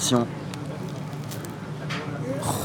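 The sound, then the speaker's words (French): Crackle of a crispy hot fritter being pulled apart by hand, a few soft, scattered crunches over a quiet background, with a brief voice at the start. “oui, ils sont tout chauds, ils sont tout, croustillants, même dans les mains, on sent que ça. On arrive à entendre là si on.”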